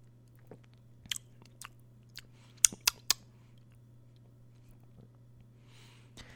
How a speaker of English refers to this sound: I'm going to take another sip.